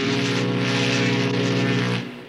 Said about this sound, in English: Most things that people do in the ocean uh, either intentionally or inadvertently produce sound as a byproduct. The one that we think about a lot with the species I study are the sounds generated from commercial shipping.